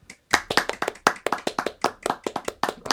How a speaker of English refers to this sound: Yeah, can we get like a round of applause between us?